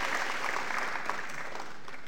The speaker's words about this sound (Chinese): 那进入台湾前直销前十大，我们只是四岁的爱多美，但我们做到了，是不是给公司一个热烈的掌声？